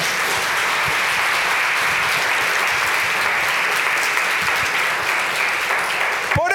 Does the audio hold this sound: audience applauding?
yes